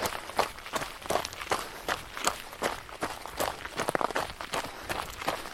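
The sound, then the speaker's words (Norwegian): Running footsteps from two people landing in step, a quick, steady rhythm of crisp thuds, roughly three per second, with no talking over them. “Hører dere at vi springer i synk nå?”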